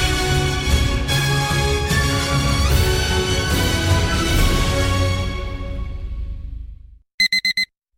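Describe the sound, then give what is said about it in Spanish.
Dense music plays and fades out, then an alarm clock sounds four quick, sharp electronic beeps in a rapid burst before silence. No one speaks. “Pasarse al Seat León híbrido con Seat Flex es tan fácil como posponer la alarma.”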